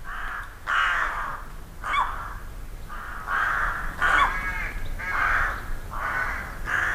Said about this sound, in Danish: Rågen, den er helt sort, ikke også? Men med gråt næb.